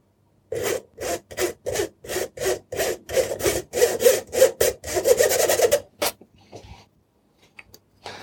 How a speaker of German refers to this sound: weil meine Mehldose sehr voll ist und dann streiche ich das hier durch so ein einfaches Sieb. Also ich hoffe, ihr könnt das hören. Ich nehme mal das, nehme mal das zweite Mikrofon, dann hört ihr es hoffentlich noch ein bisschen besser.